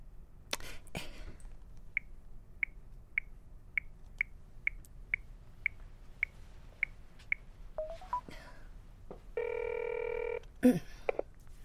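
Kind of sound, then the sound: signal or alarm, telephone dialing and ringing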